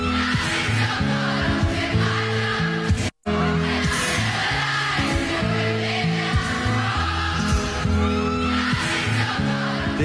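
A large crowd singing a pop song together out of their windows, many voices blending into a loud, sustained chorus over a steady tune, with a brief abrupt cut to silence about three seconds in.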